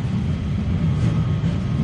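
A tram rolls steadily along its tracks, a continuous loud, low rumble with a faint rattling hum above it, unbroken for the whole moment.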